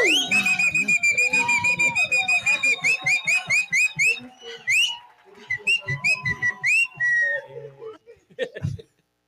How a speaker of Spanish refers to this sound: Tenemos grabado tu silbo.